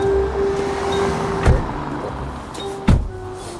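Two solid car door thumps, about a second and a half apart, over a low steady hum inside the vehicle, with faint shuffling as someone gets back into the car to wait on a stakeout in front of a building.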